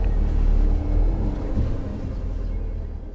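A car engine rumbles steadily from inside the vehicle after people get back into the car, a deep continuous drone that stays loud and even for the whole stretch, with no voices.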